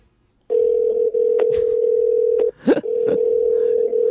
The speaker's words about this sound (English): It's like phone call fail. You can actually hear my phone dialing. It's on.